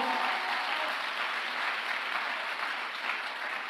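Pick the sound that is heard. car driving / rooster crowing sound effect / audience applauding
audience applauding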